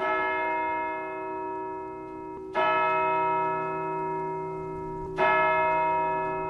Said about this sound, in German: Nur der schaurige Kindergesang wurde lauter und die Glocke schlug dreimal.